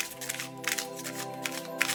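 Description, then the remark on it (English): A deck of playing cards being shuffled in a few short, crisp riffling bursts over a steady sustained musical drone in the background. “Okay, take the deck in front of you and shuffle.”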